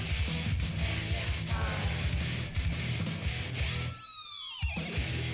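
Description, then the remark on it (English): Loud, dense thrash metal with pounding drums and distorted guitars, then near the end a guitar whammy-bar dive bomb swoops sharply downward in pitch as the band briefly drops out. “Like a little dive bomb there.”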